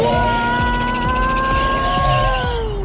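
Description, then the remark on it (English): A 1976 Lotus Esprit sports car engine hums loudly and steadily as it drives off, its pitch holding a smooth whine with faint rhythmic thumps underneath, continuous for the whole stretch. “The 1976 Lotus Esprit is not the easiest car to repair if it gets damaged.”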